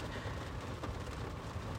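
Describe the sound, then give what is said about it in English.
Heavy rain pours down in a steady, dense hiss with a low rumbling undertone, continuous and even throughout, fairly soft in level, with no voices. “Holy shit, it's raining a lot.”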